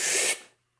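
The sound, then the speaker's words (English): A voice imitates a deep breath in: one short, loud, hissy rush of air lasting about a third of a second, then quickly fading to silence. “taking like a deep inhalation of, of air.”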